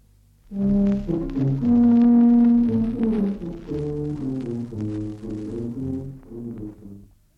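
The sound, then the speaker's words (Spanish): A low, brassy tuba plays a slow melody of sustained notes that shift in pitch, loud, with no voices and nothing else behind it. “Así verán que aunque soy tuba y tengo la voz ronca, también”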